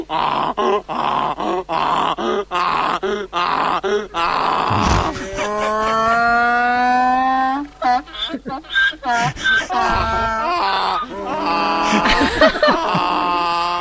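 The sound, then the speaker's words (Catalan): A young man from Mallorca imitates a donkey braying: a run of rapid, rhythmic huffing gasps, then a long, strained, rising groan, followed by choppy wheezing cries, all loud and alone. “és, és, és, un, és una burra parint, més aviat, eh?”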